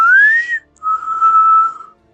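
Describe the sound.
A person whistles two clear tones: a short rising note that bends upward, then a pause and a longer steady held note, fairly loud with no talking.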